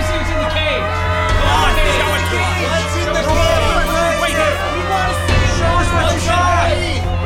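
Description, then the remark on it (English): A rowdy street crowd fills the whole stretch: a loud, continuous wall of overlapping voices, with shouts and whoops rising out of the babble, steady in volume from start to finish. “We've got to get out of this crowd and get off the street now!”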